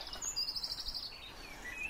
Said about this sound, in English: There's a cold snap this week that hasn't been there for a while, and I'm off for an early morning walk. you can hear that dawn chorus. The first buses aren't even in service yet.